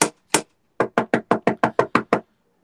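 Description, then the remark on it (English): Loud knocking on a chamber door to wake someone up: two separate raps, a short pause, then a quick run of eight firm knocks in steady rhythm, with no voices. “Let's rap a tap tap on that chamber door. Knock it nice and loud.”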